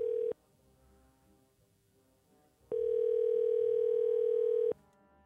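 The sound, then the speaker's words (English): A steady telephone dial tone sounds while a call is being placed, cutting off briefly at the start and then returning as a clear two-second buzz before stopping. No one speaks. “Let's see if I can get him on the phone.”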